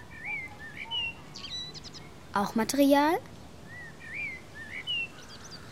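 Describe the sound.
A blackbird sings fluty, warbling whistled phrases throughout, while a person briefly speaks in the middle over the birdsong.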